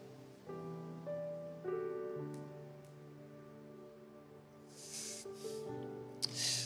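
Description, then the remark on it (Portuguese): A person takes a few quick sips and gulps of water, the short wet slurping bursts over a steady tonal hum in the background. “Calma aí, deixa eu tomar uma água aqui.”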